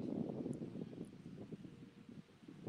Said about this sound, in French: Alors, du coup, ouais, du côté de la terre, il y, a, il y a beaucoup de vent. Il y a beaucoup de vent Oui.